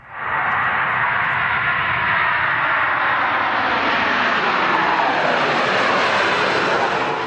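A loud, steady airplane engine roar fills the whole stretch, a broad rushing drone that slowly rises in pitch as the plane passes. No one speaks.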